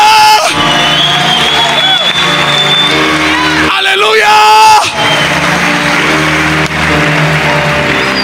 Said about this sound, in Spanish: Denle un aplauso a la gloria.